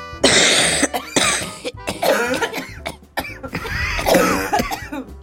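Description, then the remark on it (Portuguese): A series of harsh throat clearings and coughs from several theater audience members in São Paulo during a performance, overlapping in quick bursts, fairly loud, with no talking. “Hoje, o grande público teatral paulistano vai mostrar como pigarrear em um espetáculo.”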